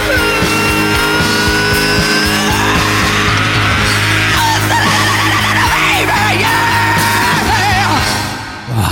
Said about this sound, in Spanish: No a la banda, sino la canción y el grito, que si les parece lo escuchamos de nuevo.